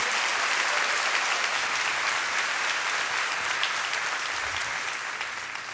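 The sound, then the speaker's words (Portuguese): A church audience applauds the Lord steadily, a dense wash of many hands clapping at an even loudness for several seconds, with no voices rising above it. “Quase dar salva de palmas ao Senhor, dá glória a Deus aí mesmo.”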